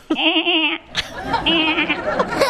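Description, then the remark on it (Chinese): A human voice mimics a sheep's bleat, one of ten animal sounds performed on request: one wavering, nasal "baa" held for most of a second, followed by a second, shorter trembling bleat mixed with chuckling vocal sounds. “那个是羊吧哈， 羊”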